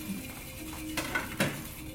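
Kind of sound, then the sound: household object, washing dishes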